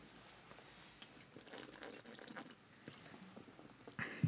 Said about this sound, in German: Komm, wir trinken schnell noch ein Bier, dann fällt das nicht ja, so auf. Stimmt auch. Prost.